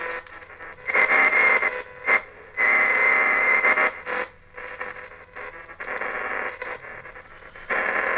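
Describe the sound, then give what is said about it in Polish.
A low, steady electrical hum runs beneath loud, hissing static from a radio tuned to the first shortwave band. The static surges and drops in bursts, with brief quieter gaps between the noisy stretches. The hum is also heard outside the computer, though less. “Mam taki przydźwięk. Niestety, on też jest słyszalny poza komputerem, ale jednak mniej.”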